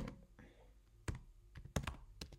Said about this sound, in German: jetzt hat man nur das Tippen.